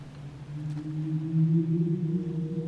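A low, drawn-out whale moan hums steadily for a few seconds, its pitch lifting slightly partway through, heard alone against a faint background hiss.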